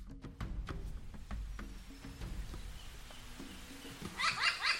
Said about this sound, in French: Tu entends ces cris qui résonnent sous la canopée des arbres Approchons-nous. Doucement, pas à pas. Voici nos corbeaux. Regarde, ils sont quatre.